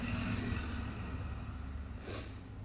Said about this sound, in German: Boah, der Bus.